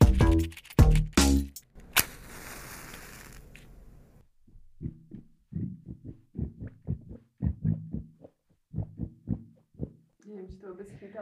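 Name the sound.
stomach rumbling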